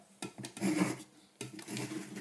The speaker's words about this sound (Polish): Teraz zakładamy górną część urządzenia, czyli ten cały dzbanuszek. Skręcamy dość dokładnie